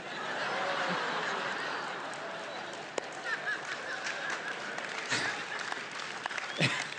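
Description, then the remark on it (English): Steady applause from an audience, a dense wash of many hands clapping at once, with a few sharper claps standing out and faint chuckles mixed in. “Too late, too late clapping.”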